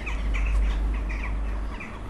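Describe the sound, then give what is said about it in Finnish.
A flock of jackdaws calls repeatedly in short, overlapping chatters at their night roost, over a constant heavy rumble of traffic with buses passing. “Aika jännä paikka, kun siis busseja menee ohi ja liikenne on aika kova, mutta silti naakat on ottanut tämän yöpymispaikakseen.”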